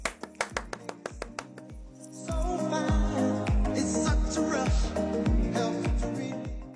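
A short run of about eight sharp, evenly spaced claps, like a rhythmic clapping beat, leads straight into louder music with a thumping bass drum that carries on to the end.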